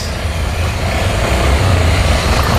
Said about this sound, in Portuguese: Olha ele de helicóptero aí, ó. Chegou, ó. Chegou.